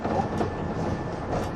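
Steady, dense rumble of a 185 series express train, the Odoriko No. 106, running from Izukyu-Shimoda to Atami, broad low noise with faint rhythmic wheel clatter and a thin high whine running throughout, no voices present.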